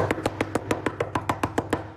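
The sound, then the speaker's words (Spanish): Frantic, rapid knocking imitating someone desperately knocking on a door, about eleven sharp raps in two seconds at a steady urgent pace, fairly loud, with no talking. “De la nada, 15 minutos después, yo escucho que toca la puerta, loco, pero”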